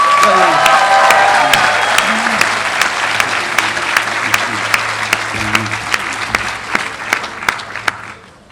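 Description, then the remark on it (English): At a graduation, graduates applaud their family and friends steadily, a dense wash of clapping with scattered louder claps and a few faint cheers, gradually tapering off toward the end. “Uh, so, graduates, let's give a round of applause to uh, family and friends.”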